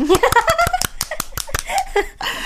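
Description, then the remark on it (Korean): A few people clap in a quick, steady burst of about a dozen sharp claps, with light laughter and voices mixed in at the start. “그런 의미에서 박수 한 번.”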